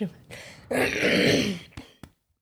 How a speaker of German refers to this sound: Kannst du hier ruhig räuspern.